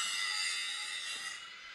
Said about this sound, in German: Das hört sich doch nach unserer Flex an.